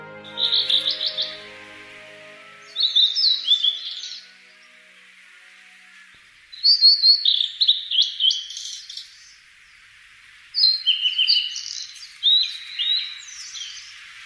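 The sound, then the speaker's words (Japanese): A blue-and-white flycatcher sings clear, warbled phrases in four bursts separated by short pauses, distinct against a quiet woodland background, from within thickets growing over a narrow forest path. “森の中の細い道は花塔小道です道を覆うように伸びたすだちの中から聞こえてきたのどかなさえずりはオ大瑠リです”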